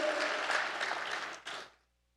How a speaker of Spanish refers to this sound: Aplaude, hermano. que aplaudió. Un aplauso al que aplaudió.